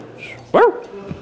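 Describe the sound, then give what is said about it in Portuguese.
A dog gives one loud, sharp bark, preceded and followed by quieter background noise and faint yips, with no talking. It is one of three pet dogs, Gisele, Oswaldo and Pérez, which are refusing to go down a staircase. “Estão tomando um pau dos três cachorros que elas têm.”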